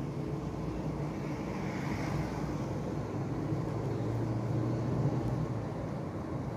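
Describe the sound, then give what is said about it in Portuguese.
A motorcycle engine hums low and decelerates amid a steady wash of street traffic, the rumble continuous and fairly loud with no voices. “desacelerada boa motoca. Eu achei que você ia entrar com tudo, eu reduzir.”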